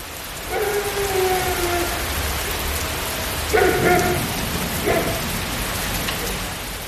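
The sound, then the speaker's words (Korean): Steady, dense rainfall hisses continuously throughout a pitch-dark night, with no voices, and a few faint tonal sounds float briefly over the downpour. “비는 분말처럼 몽군 알갱이가 되고 때로는 금방 복국이라도 뚫고 쏟아져 내릴 듯한 두려움의 결정체들이 되어 수시로 변덕을 부리면서 칠흑의 밤을 온통 물걸레처럼 질펀이 적시고 있었다.”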